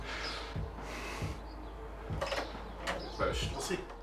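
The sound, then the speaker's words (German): A door opens with a few scraping, knocking clatters, set against a low steady hum and some faint background voices. “Jetzt sind wir gespannt, wer die Türen aufmacht.”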